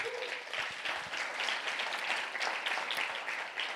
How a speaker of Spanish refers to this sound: Así es que dale un aplauso al Señor.